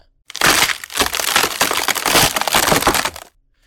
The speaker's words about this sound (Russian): Вдруг он услышал треск, который был похож на звук ломающегося льда